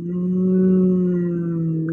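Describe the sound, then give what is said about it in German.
A low, steady hummed tone held for about two seconds, fairly loud, a warm voice warming up with a hand on the chest, resembling a cow's moo with a slight wavering pitch. “man klingt so ein bisschen wie eine Kuh, und dann so ganz wohlig.”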